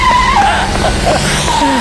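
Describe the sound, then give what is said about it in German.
Loud tire squeal as a car skids hard in front of a town hall and runs a person over, a high, wavering screech sliding in pitch over engine rumble for nearly two seconds, with no voices. “Das Auto hat sie überfahren.”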